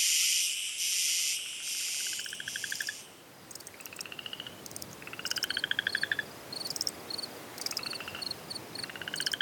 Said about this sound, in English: Frogs likely joined the chorus about 200 million years ago, a date inferred from the timing of the split between modern singing frogs and their silent relatives.